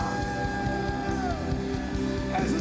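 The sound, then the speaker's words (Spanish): A large audience at a Christian worship service shouting and cheering loudly together in sustained praise, a shout of glory and victory to the Lord, the roar filling the room over a steady rhythmic beat underneath. “Ese es el grito de victoria que el Señor ha”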